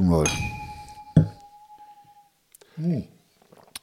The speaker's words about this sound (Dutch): Wacht even, we gaan eerst even proosten, jongen. Ja, salut.